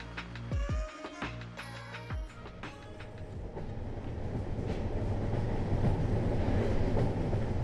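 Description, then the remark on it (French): A train runs along the rails with a steady rumble, early screeching tones and clanks giving way to a dense, continuous rolling roar that grows slightly louder, with no talking. “Le train, un miroir sur le monde qu'il parcourt sur le fil des rails.”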